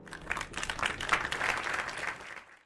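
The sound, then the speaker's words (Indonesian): A crowd applauding, a dense wash of many hands clapping at once that swells slightly and then begins to fade, fairly loud with no voices over it. “Selanjutnya, yoi, kita kita kasih background itu kita kita kasih background tepuk tangan dulu.”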